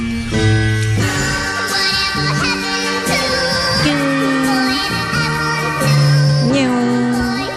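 A loud, full-sounding 2005 pop cover version of a 1960s song, used as a viral TikTok sample, plays continuously, a gliding melodic lead riding over dense, bright backing instruments, with no talking over it.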